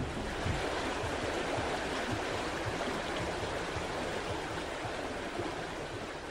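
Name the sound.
river water flowing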